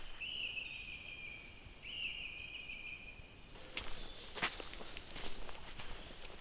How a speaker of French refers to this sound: Alors on entend la grive musicienne, entre autres. C'est vrai que la grive musicienne, elle, porte bien son nom parce qu'elle fait différentes mélodies.